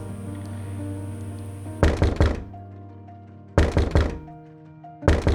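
Loud, insistent pounding on the door of a house comes in three rapid bursts of several heavy knocks each, separated by short pauses, over a steady low hum with no one talking.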